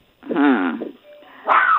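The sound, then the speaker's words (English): A dog gives two short, loud barks, the first drawn out and wavering like a whine-bark, the second sharper after a brief pause, with no talking. “dog is saying, "Come out yeah, and prune.”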